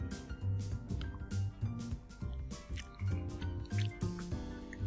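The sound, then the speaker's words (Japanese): Someone drinks a fizzy cola-flavored carbonated drink in a series of quick wet gulps and swallows, a steady run of liquid sounds with no talking. “コーラ風味、じゃあ、実際ちょっとじゃあ、飲んでみましょうか。”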